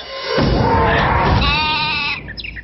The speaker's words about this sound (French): Un mouton!